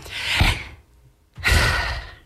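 Two deliberate, airy breaths taken by a woman before she speaks, each lasting under a second, separated by a brief silent pause. No one speaks.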